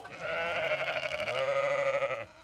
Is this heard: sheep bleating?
yes